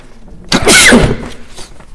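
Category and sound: human body sound, sneeze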